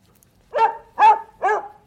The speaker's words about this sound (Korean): 정겨운 개 짖는 소리입니다.